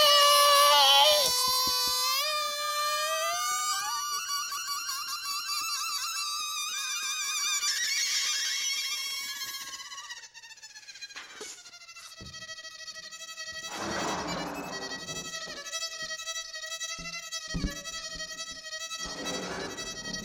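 A balloon squeaked and played as a new musical instrument, dubbed the 'Luftballonium': long, wavering high-pitched whines that glide up and down in pitch, continuous for several seconds, then a few shorter squeals with brief pauses between them.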